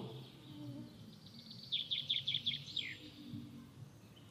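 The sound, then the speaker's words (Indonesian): A quick burst of high, shrill bird chirps, birds calling back and forth, about six rapid notes in a row ending in a downward slur, set against a soft low rumble of background ambience. “Burung-burung itu berbicara cepat sekali, melengking, bersahut-sahut.”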